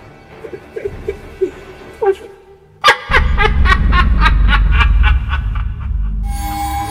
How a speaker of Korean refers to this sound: 연이어서 들려오는 이상야릇한 웃음소리.